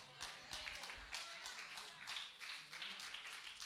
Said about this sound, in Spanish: Si ese aplauso es para mí, está bueno, pero si es para Dios, tiene artritis.